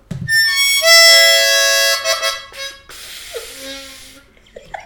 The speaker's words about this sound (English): So would you like to have a toot on Dave Terra, Perry's harmonica.